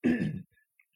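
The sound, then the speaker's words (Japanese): A single gravelly throat clearing lasting under half a second, rough and voiced, followed by a faint breath and a tiny click in near silence. “ちょっと咳払いします。”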